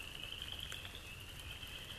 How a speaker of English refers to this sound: and the frogs are singing. And they do sing of an ancient sacred medicine, something that lives within, our, within all of our hearts, a potential that is just within your reach.